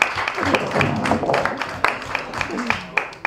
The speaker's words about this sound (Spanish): Un aplauso para ella que lo ha hecho muy bien, gracias.